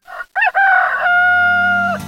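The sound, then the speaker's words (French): A rooster crows loudly, a single full cock-a-doodle-doo with a short rising start and a long sustained final note. “Au fait, pourquoi le coq est-il l'emblème de la France”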